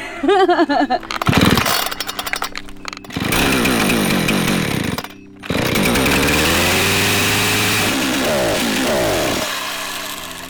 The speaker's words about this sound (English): This is a 455 Husqvarna. It's too big. It's really heavy. It's a uh, logger's chainsaw.